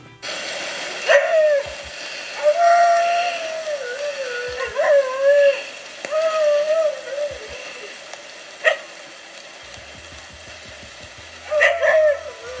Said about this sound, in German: Ich habe jetzt da nichts Spannendes gehört, aber dieses Gejaule von diesen Dingos, das eine Art, also was eine Hundeart ist, soll ganz besonders sein. Hört euch das mal an.